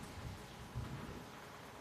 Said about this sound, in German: Jetzt schon fast vorbei mit dem Regen. Aber tut gut. Schöne Kühlluft.